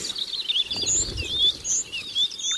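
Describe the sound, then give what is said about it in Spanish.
Several birds chirp and trill in quick, overlapping high calls, a steady busy chorus of tweets heard clearly with no one speaking, with a soft low rumble underneath for a moment. “que los cielos se llenen de aves de toda clase.”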